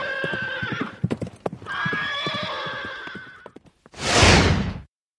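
A horse whinnies twice in long, wavering neighs over the clatter of hooves clip-clopping, then ends with a loud, breathy snort.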